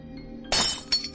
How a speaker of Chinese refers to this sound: 油灯被打得粉碎。